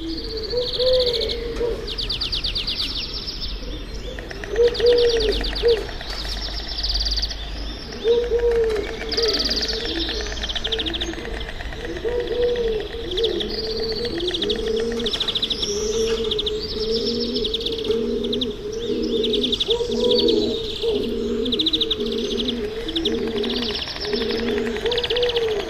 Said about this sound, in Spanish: Esa es la tórtola turca. que es un, bueno, se llama así, es un ave que colonizó Europa